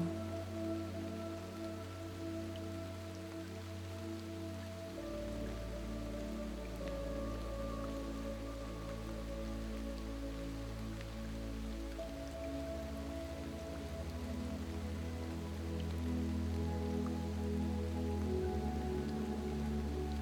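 Steady rain falls in a constant, even hiss, blended with soft, sustained music tones that shift gently a few times; no one speaks.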